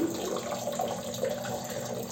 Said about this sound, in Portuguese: Estou mijando. Como vocês podem perceber, a água do meu mijo está caindo no vaso sanitário.